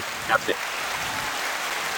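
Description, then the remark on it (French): Steady crackling applause, like a crowd clapping all at once, fills the whole moment at a moderate level, with a couple of brief vocal sounds near the start. “attention, faut applaudir, attention, tout l'univers va t'applaudir, écoute bien.”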